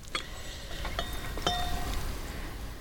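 A drink is being refilled, with a few sharp glass clinks that leave brief high ringing tones over a steady low background rumble. Nobody speaks.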